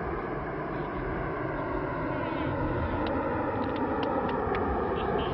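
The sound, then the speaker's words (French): A Concorde jet airliner takes off at 15:38 after the control tower's go-ahead, with André Turca working the throttle levers, a dense, deafening roar that holds steady throughout, with a few faint clicks near the end. “Le Concorde se cabre, il décolle avec élégance dans un fracas assourdissant.”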